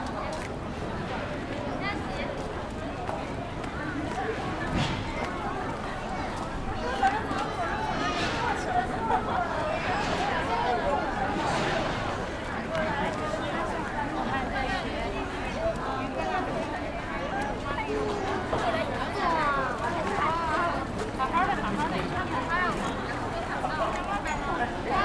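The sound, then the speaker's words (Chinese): A steady wash of street ambience while walking through the 798 art district on October 3, near UCCA toward the east street: overlapping crowd chatter and murmuring voices, scattered footsteps and occasional clatter, constant and moderately loud throughout with no single voice standing out. “10月3日散步798<第1部分>｜城市声音”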